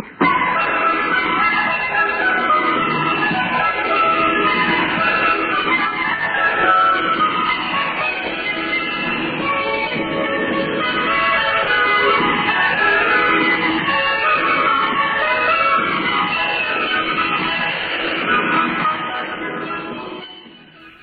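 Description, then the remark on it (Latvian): The Voice of America interval signal and the march melody Yankee Doodle play through a narrow, noisy shortwave-like channel, with warbling, swooping tones held steady and loud for about twenty seconds before fading out. “Šo intervāla signālu ar tam sekojošo marša melodiju Yankee Doodle pazīst klausītāji lielākajā daļā pasaules, un ne tikai nulle izskanējušajā angļu versijā.”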